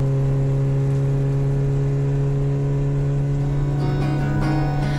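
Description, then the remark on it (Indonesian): A car engine drones steadily as the car drives through rain that is getting heavier, a continuous low hum with a constant, fairly loud level throughout. No one speaks. “Yang terdengar hanyalah rintikan hujan dan suara mesin yang menderu.”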